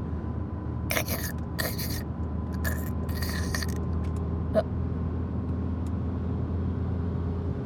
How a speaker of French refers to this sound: Ah, il est tout neuf ce cric. Les bons ouvriers ont de bons outils.